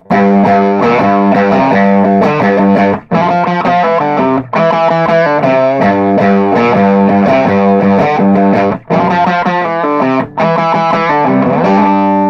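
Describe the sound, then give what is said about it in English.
A loud, fuzz-distorted electric guitar riff plays alone, thick and sustained, with chunky repeated phrases broken by a few brief pauses in a heavy, driving rhythm. “I could dial that fuzz thing in for you”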